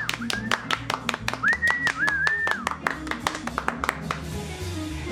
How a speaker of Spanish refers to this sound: Aplausos, por favor.